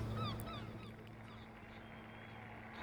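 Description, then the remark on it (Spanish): A few seagull cries ring out in quick succession at the start at a golf course, then fade, leaving a steady low hum and faint outdoor background noise. No one speaks. “Todos están tan callados, pero las gaviotas siempre están presentes.”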